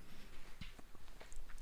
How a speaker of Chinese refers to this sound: 我都已经看到了，一边嚼的，听听声音。